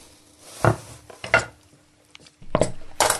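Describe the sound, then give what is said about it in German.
Clattering kitchen sounds as a blender is fetched and set down: a few hard knocks and scrapes against a countertop, fairly loud, with short pauses between them. “So, dann holen wir einen Mixer.”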